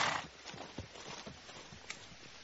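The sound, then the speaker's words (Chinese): A chestnut-red foal's hooves clip-clop in a quick, uneven rhythm as it runs and plays across a large open field, joined by a brief, high whinny partway through; fairly quiet overall with a soft background hiss and no talking. “枣红色的小马驹蹬着小蹄，在大片空地上奔走嬉戏，时而发出嘶嘶的叫声，时而放慢脚步”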